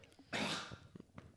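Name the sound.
sneeze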